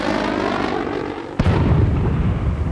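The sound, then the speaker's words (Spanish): A steady droning roar from a jet plane flying overhead is cut by a sudden loud explosion, followed by a deep rumbling blast that continues heavily to the end, with no voices present. “Escucha una explosión y Marco levanta la cabeza pero no ve nada.”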